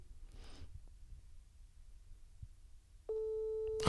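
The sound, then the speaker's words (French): After a few seconds of quiet, low background noise, the steady electronic ringing tone of an outgoing phone call starts abruptly and sounds loud, continuing to the end without any talking. “Première sonnerie. On a le droit à combien de sonneries Ah, ça, on va voir.”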